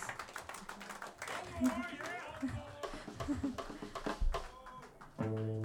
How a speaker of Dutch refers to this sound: En zo klonk dat. En daarmee is de, stierf het applaus weg, om het zo maar te zeggen.